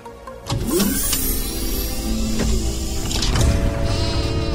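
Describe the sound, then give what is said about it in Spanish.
A sheep, Dolly, a seven-month-old Finn Dorset lamb and the first successfully cloned sheep, bleats a few wavering cries over a steady, fairly loud background of mechanical noise, with no one speaking. “En este año nace Dolly, la primera oveja clonada exitosamente Her name is Dolly.”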